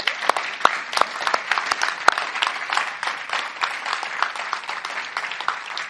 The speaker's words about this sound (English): So can we just give them a massive round of applause?